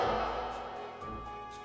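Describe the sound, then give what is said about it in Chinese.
A soft two-tone doorbell chime at the door of a home: one sustained ringing note gives way to a second, slightly different note that rings on, with no voices. “就在他们走到卧室门口的时候，门铃响了”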